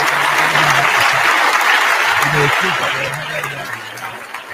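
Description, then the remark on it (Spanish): Sustained, dense applause from a sizable crowd, loud and steady for several seconds before easing slightly toward the end, with a voice faintly audible beneath the clapping. “Ay, señor, como yo digo, hermano, de verdad, si usted me aplaude dos veces,”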